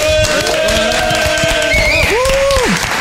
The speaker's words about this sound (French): Applaudissements, ouais, allez.